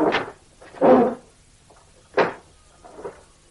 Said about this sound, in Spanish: Abre los cajones del tocador y los registra buscando los billetes.